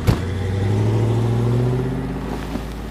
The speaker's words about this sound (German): Fest steht, die drei Männer steigen in einem Toyota Pickup und rasen davon.